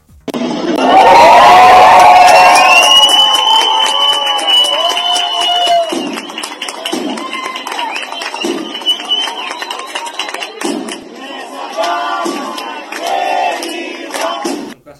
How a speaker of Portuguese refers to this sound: A gente acabou de ouvir então aí um trechinho, né, do áudio da festa que aconteceu no dia 20 de agosto, que seria do aniversário do prefeito